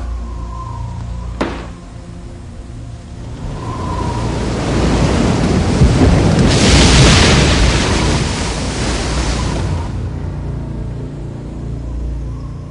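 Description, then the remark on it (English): A roaring storm at sea: broad rushing wind and crashing waves swell to a loud peak midway, then ease back to a steady churning roar, with no voices present. “Increase the wind.”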